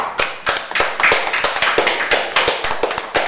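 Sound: applause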